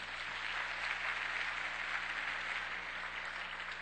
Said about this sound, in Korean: 우리 하나님께 감사의 박수 한번 드리겠습니다.